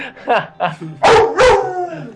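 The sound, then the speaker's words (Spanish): A dog barks twice, loud, in quick succession after a few moments of someone talking; the second bark trails off with a faint lingering tone. “Permíteme un momento, voy a ir a golpear a ese perro.”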